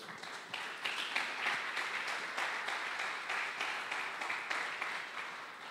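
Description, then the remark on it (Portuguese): An audience breaks into sustained applause for the Lord during a sermon, many hands clapping in a dense, steady wash that holds at an even level for several seconds, without any voices over it. “Pode dar mais um aplauso ao Senhor aí?”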